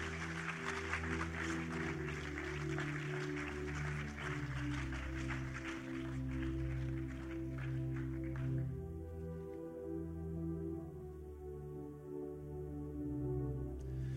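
Audience applause crackles steadily over sustained, low instrumental music, then dies away after about eight seconds while the music keeps playing alone.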